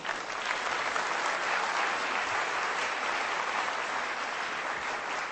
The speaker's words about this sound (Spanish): Esto merece un aplauso, por favor, ¿sí?